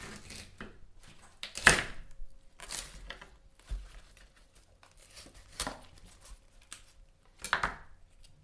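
A knife cuts off part of a firm cauliflower stem in several crisp, crunchy strokes spaced irregularly a second or two apart, with no one speaking.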